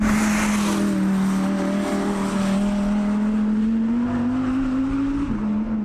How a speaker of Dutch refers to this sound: Het is de laatste der Moikanen. Ik heb het over eh, de V10-motor die Audi in de R8 heeft gelegd. Hij klinkt echt wel heel erg lekker.